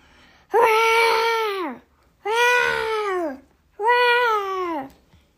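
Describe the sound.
A person imitates a lion with three loud, drawn-out vocal roars, each about a second long and sliding down in pitch at the end, separated by short pauses.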